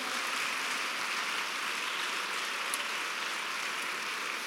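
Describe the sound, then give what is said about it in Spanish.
A church audience applauds the Lord in a dense, steady wash of clapping that holds at an even level for several seconds, with no voices breaking through. “¿Le puede dar un aplauso al Señor en esta hora?”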